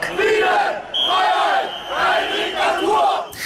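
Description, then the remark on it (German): A large crowd chants in unison outdoors at a street protest in German cities against government Corona measures, loud rhythmic shouted phrases rising and falling in repeated bursts, many voices blending into a steady protest chant with brief pauses between lines. “Zehntausende Menschen sind am Montag in zahlreichen deutschen Städten gegen die staatlichen Corona-Maßnahmen auf die Straße gegangen.”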